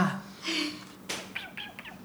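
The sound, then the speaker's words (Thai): A man mimics an animal call, ending in three quick, high, squeaky cries in a row, fairly quiet with a soft breathy sound before them. “อุ้ยขอโทษขอโทษโทษนะผมเป็นคนเวลา มีอะไรเงียบๆ แล้วผมชอบทำอะไรเสียงอะไรเมื่อกี้เสียงอะไรคะ ผมชอบทำเสียงสัตว์ครับเมื่อกี้คือตัวอะไรอ่ะเมื่อกี้ไม่มีไม่มีอะไรแต่ว่าผมชอบทำเสียงแปลกๆ”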